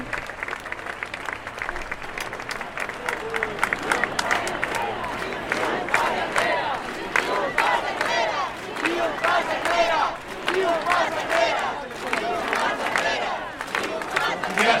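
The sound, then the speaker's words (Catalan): A huge rally crowd, so large its end cannot be seen, roars, shouting and cheering in continuous waves with bursts of applause, loud and dense throughout as many voices overlap. “Aquí esteu! No es veu al final! No veig el final! De tants com sou!”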